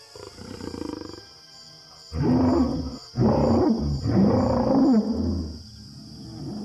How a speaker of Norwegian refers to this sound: Dung left by a female allosaurus has an immediate effect on Al, and for the first time in his life, he issues a mating call.